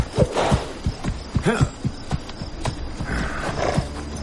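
Horse hooves thud in an uneven clip-clop rhythm as a horse is being trained on a ranch, a series of low, punchy steps with brief pauses, over a steady background hum; no one speaks.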